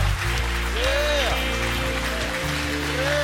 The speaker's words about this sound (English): Come on, clap in this place today. Why? Because a breakthrough anointing, come on, is being released in this place today.